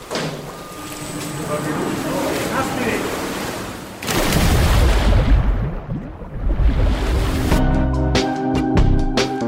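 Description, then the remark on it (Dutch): A steady mechanical drone gives way to a heavy splash as something large plunges into water in a helicopter crash simulated by instructors during mandatory safety training, followed by churning, rushing water and bubbling, with indistinct voices in the background. “Dus ook een helikoptercrash. Die wordt door de instructeurs gesimuleerd.”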